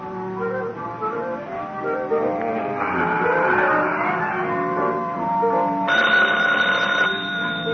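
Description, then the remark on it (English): A telephone rings steadily for several seconds, fairly loud, its trilling tone layered over a dense, busy tonal background with no one speaking. “Oh, phone Gino.”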